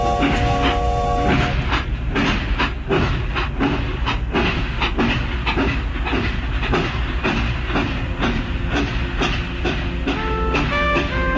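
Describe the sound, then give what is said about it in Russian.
Train wheels clatter over rail joints in a steady, rhythmic clickety-clack beneath a constant loud rumble. A few brief tonal squeals or whistles come and go, with no voices. “Мы, мы рискуем опоздать на поезд.”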